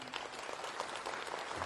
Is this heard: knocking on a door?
no